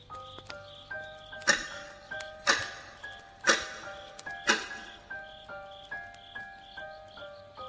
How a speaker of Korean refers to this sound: 어두운 이 방 정적 속에서 마치 시계는 나를 깨우려는 듯 신경 거스리는 소리를 내었다.